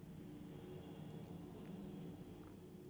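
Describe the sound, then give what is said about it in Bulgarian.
A steady, low droning rumble of an airplane passing overhead, even in loudness throughout, with no voices or other distinct sounds. “Ето и тези хора в този самолет, който минава и те продължават.”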